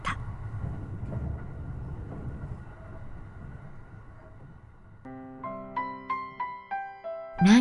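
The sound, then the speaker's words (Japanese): An electric train rumbles and rattles steadily along the tracks for several seconds, swaying as it heads south, then fades as a series of bright, melodic chime tones rings out near the end. “電車はガタゴトと揺れながら南に向かった”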